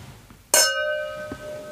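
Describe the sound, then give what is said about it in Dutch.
Glasses clink once in a toast, a sharp strike followed by a clear ringing tone that fades slowly, with no one speaking over it. “We zaten met ons hoofd al uh, zo ver in de muzikale passie dat we zelfs zijn vergeten te klinken.”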